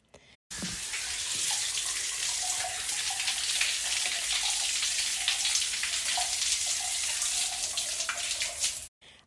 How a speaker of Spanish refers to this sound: La casa entera estaba quieta. Solo Rutilio regaba las losetas del corredor.